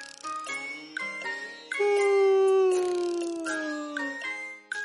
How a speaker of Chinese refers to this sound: 浣熊太太买了一罐紫元英蜂蜜，跟着打了个长长的哈欠，我都看见他的嗓子眼儿了。